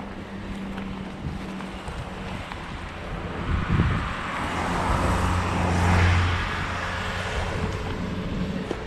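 A vehicle rumbles past on a road, its low engine drone and broad rushing noise swelling midway before easing off again, with a windy, blustery texture throughout and no talking.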